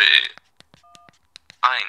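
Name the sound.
phone keypad tones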